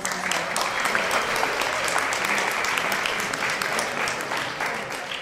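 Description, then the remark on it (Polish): Sustained audience applause at a music contest for young bands, a dense steady patter of many hands clapping at even loudness for about five seconds, with no one speaking over it. “Proszę o wielkie brawa na tego”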